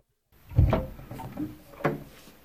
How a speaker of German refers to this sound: Sie ist aufgeregt. Da geht die Tür auf.